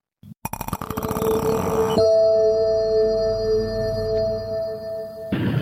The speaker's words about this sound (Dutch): Ja, dat was het geluid van eh, eh, het vroegere geluid van de Bright YouTube filmpjes. Eh, nou, wij, dachten. Ja, wij dachten super, super origineel geluid.